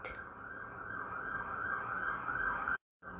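A loud, piercing electronic alarm, a type that goes off every so often, blares continuously at a steady high pitch, cutting out for a split second near the end before sounding again. No one speaks.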